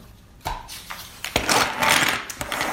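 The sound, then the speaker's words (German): Several identical intelligence-test cubes, each with two white sides, two red sides and two half-red, half-white sides, are set down on a table in a practice in Wesel, with a few sharp clicks followed by a quick run of clattering knocks as they are arranged. No voices. “Als erstes gibt es hier so Würfel.”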